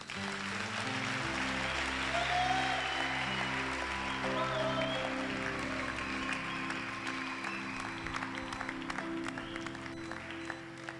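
An audience claps continuously, a dense wash of many hands sustained for about eleven seconds at a steady level, with held musical tones running underneath and no talking.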